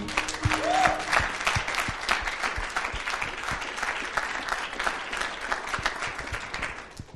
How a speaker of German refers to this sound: Hammer, lass uns mal Jesus einen Applaus geben dafür.